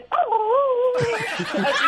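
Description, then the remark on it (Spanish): A person imitates cowering dogs' whimper: a high, wavering whine held for nearly a second, then breaking into breathy, sputtering sounds like stifled laughter. “¿Cómo le hacían los perros? así”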